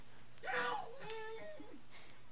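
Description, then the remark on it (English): A woman buried under junk, dirt and glass screams for someone to dig her out; her muffled, anguished wail rises and falls in a couple of drawn-out cries, smothered and coming up out of the ground, with no other voices around it. “A woman was buried under the junk and dirt and glass, and she was screaming all wild and horrible for somebody to dig her out.”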